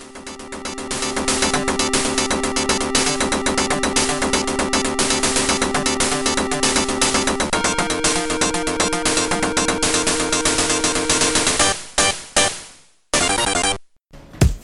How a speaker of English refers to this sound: On top of music, the game featured MIDI style engine sound, tire squealing, and crash sound effects. I won't deny it, the engine sounds a little bit irritating, but, you know, for the time, it was well done.